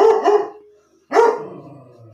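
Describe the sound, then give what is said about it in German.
A dog named Inge barks: a quick double bark, a brief pause, then a single louder bark that trails off, with no talking around it. “ja, die Inge sagt auch was dazu.”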